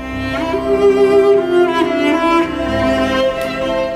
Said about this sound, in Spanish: Pues hay un trío, el trío Dumki de bora que suena así.